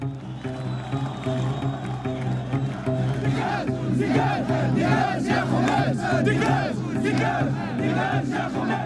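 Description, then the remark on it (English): A large crowd of protesters in a popular uprising in Tunisia during the Arab Spring, chanting in unison, starting as a dense roar of voices and settling into loud, rhythmic repeated shouts with a steady beat, sustained throughout. “This is what popular uprising looks like.”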